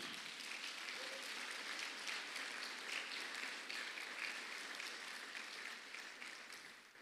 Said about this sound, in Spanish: Dale palmas fuerte al Señor, hermano.